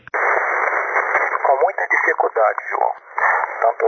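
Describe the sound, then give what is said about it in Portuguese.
Steady, narrow-band radio static hisses throughout, with a faint, unintelligible ham radio voice surfacing under the noise partway through, speaking in broken bursts. A thin high whine lingers above it. “que fica aqui um pouquinho abaixo do limiar do ruído, então não deu para compreender ele, deu para ouvir que tinha alguém na frequência, mas infelizmente não deu para entender.”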